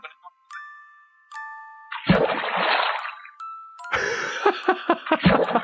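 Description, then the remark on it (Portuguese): A WhatsApp notification tone chimes a few times in quick succession, clear, while someone is calling on the phone, followed by a burst of noisy rustling and some muffled voices. “Não, esse é o toque do WhatsApp, sabe?”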